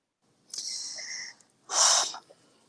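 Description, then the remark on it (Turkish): A deep breath drawn in through the nose, a long airy inhale followed by a short pause and a strong, breathy exhale, fairly loud with no talking. “De hazırlık başladı tamam derin nefes almalar.”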